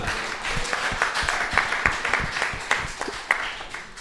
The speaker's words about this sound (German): Ähm, oh, kriegt einen Applaus? Ja.